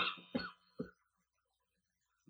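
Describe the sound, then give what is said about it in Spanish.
A few short, rough coughs and a throat clear in quick succession, fairly loud, then near silence with a faint sound at the very end. “Y este, y este, y por eso traigo tos, traigo así con una,”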